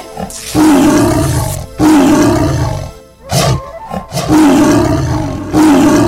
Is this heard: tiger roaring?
yes